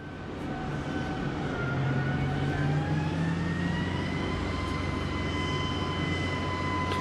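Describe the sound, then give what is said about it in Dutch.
An armored vehicle rolls off a gangplank with a steady, heavy engine drone and a rising mechanical whine, loud, running unbroken for several seconds with no voices. “Wat je hoorde was het geluid van een panzervoertuig dat van de loopplank afrolt.”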